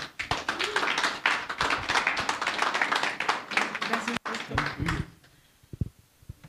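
A crowd applauds with dense, sustained clapping for about five seconds, then it fades out, leaving a few scattered claps and taps.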